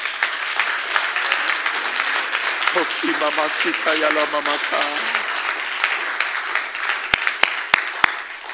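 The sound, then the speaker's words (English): An audience claps hands together in a dense, continuous burst of applause at the preacher's call to clap, with voices calling out over it midway and a few sharp, louder claps standing out near the end. “Clap your hands.”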